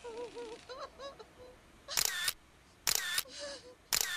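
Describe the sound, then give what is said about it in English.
Three crisp camera shutter clicks sound about a second apart, each a sharp mechanical snap, following a faint wavering tone at the start. “It was like a siren, and I lifted my camera to my eye.”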